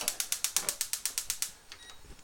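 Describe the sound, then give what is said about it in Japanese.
A gas stove burner is switched on to heat a pot for boiling water while cooking lunch: a rapid, even run of about a dozen sharp igniter clicks, then a soft steady hiss as the burner catches. No one speaks. “ちょっとこれからお昼ご飯を作ります生活音満載でお届けしますがこれをね火にかけて”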